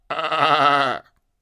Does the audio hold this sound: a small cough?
no